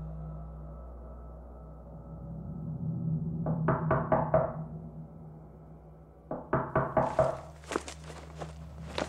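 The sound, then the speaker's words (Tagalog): Two quick bursts of knocking on a door at about midnight, each a run of about five firm raps, separated by a short pause, over a low steady background hum with no voices. “Bumangon si Lola para pagbuksan ang kung sino mang kumakatok.”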